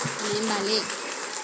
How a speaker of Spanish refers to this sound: Demos un aplauso fuertísimo al amor y vean por Dios.